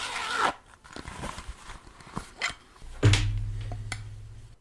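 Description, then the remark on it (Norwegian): A case is unzipped to take out a 15-year-old recorder for the first time in years: a quick ripping zip followed by soft rustling and handling, then a low thud as something is set down. No one speaks. “Så det var med en blanding av nostalgi og usikkerhet at jeg tok den 15 år gamle blokkfløyten min ut av et UiE for første gang på flere år.”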